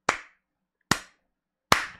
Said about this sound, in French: Franchement, je vous propose qu'on prenne 3 secondes ensemble et qu'on applaudisse